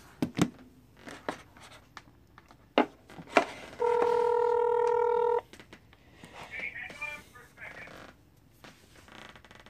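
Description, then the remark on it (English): Telephone dialing tones as a call is placed: a few sharp taps, then a loud, steady electronic tone holds for about a second and a half before cutting off, followed by faint warbling tones and low background murmur. “So let me give him a call, see if he can uh, Hopefully this picks up.”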